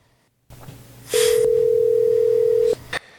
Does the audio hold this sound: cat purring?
no